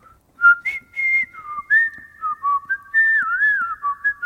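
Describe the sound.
A person whistles a lilting melody, clear sustained tones gliding between pitches with a small trill, phrased in short connected notes over about four seconds with no talking.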